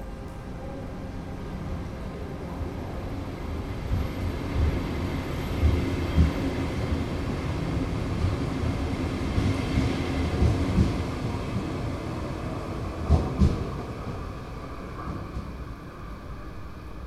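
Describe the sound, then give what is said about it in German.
A train rolls steadily along the rails toward Malmö, travelling via Kristianstad, with a constant rumble broken by occasional clacks and rattles from the wheels and cars. No one speaks. “Je näher der Zug Malmö meiner nächsten und vorletzten, unaufhörlich vorletzten Station entgegenkommt, Fahrt über Christianstadt, desto lauter werden Land und Leute leben.”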